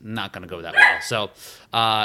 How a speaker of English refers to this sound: excuse the dog barking